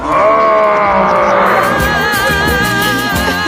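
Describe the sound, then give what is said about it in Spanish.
A loud, drawn-out straining grunt from a single voice, held for several seconds with a rough, bleating quality, like someone heaving a heavy barbell overhead. It may be an exaggerated imitation. “la voz del esfuerzo era …, haciendo de Frankenstein”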